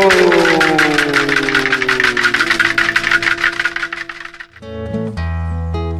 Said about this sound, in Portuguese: É um trem que vai viajando por aí, cruzando esse Brasil e vai levando em cada vagão viola, poesia, cultura, arte, cidadania.